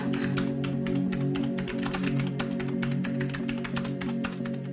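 Rapid, steady clatter of keys on a computer keyboard as a woman answers emails, continuous, over a low constant hum; no one speaks.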